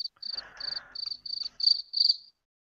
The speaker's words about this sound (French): Grillon.